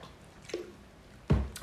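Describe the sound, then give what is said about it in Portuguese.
Wet swallowing sounds of someone drinking water: a soft sip, then a louder gulp about a second later, with no talking. “tomando uma água aqui.”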